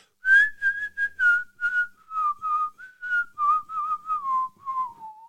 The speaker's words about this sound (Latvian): Es, um, es nezināju, ka es varu šo nosvilpot tik precīzi. Vismaz man pašam šķiet, ka tas ir precīzi.